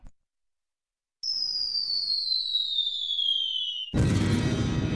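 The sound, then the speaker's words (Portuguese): The 'Rojão da Kombi' firework rocket effect on Rádio Bandeirantes whistles with a steadily falling pitch for a few seconds, then bursts into a loud bang followed by a sustained crackling roar. “aqui na Rádio Bandeirantes, a voz do povo é a voz de Deus, uma criação do, do nosso Mamone, o Rojão da Kombi.”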